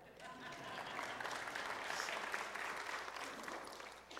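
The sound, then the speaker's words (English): An audience breaks into sustained applause, a dense crackle of many hands clapping that swells over the first second and holds steady for about four seconds without any voices on top. “Yes, you can applaud for that.”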